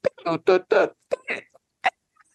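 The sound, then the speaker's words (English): A voice imitates a squeaky E-flat clarinet phrase: a quick run of short, shrill, nasal yelps, fairly loud, ending with a couple of isolated squeaks and faint trailing bits. “and he then he gets a little nervous and he squeaks. There's a E flat clarinet part that goes”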